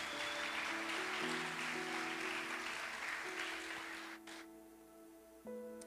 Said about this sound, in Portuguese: Você pode glorificar a Ele por essa, essa realidade, aplaudindo a Jesus.